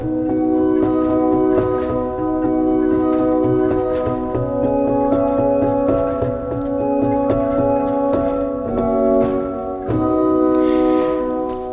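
A pipe organ sounds a steady, full tone with a note one octave higher added by drawing a coupler stop, sustained loudly for several seconds with faint mechanical clicks from the instrument's action.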